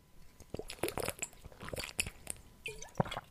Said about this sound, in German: es tut mir leid, ich muss mal vielleicht einen Schluck trinken. Irgendwie habe ich gerade einen Frosch im Hals, was mich sehr wundert.